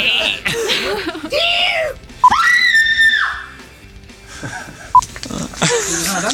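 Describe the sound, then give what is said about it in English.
A voice imitates a deer's call with a high, strained squealing cry that rises and holds for about a second, framed by breathy vocal noises and a second short squeal near the end. “Do you know what sound a deer makes?”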